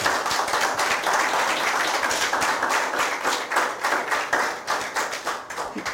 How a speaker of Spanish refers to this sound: Así que a la cuenta de 3, 1, 2, 3. aplauso.